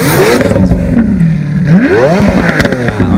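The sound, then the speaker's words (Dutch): The V12 engine of a Lamborghini LP874 Roadster in Azuro Flake paint revs hard, its pitch dipping and then climbing sharply in a loud, throaty rise and fall with a steady idle rumble underneath. “Eh, de LP874, een Roadster met eh, een prachtige kleur, moet ik zeggen. Azuro Flake heet die. kom op, hoe klinkt die? Ja, V12 motor.”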